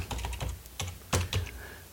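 Rapid, uneven clicking of keys on a computer keyboard, a quick burst of typing with a few louder strokes near the end, clear with no talking; someone typing "Palma" into a place, country or region search field.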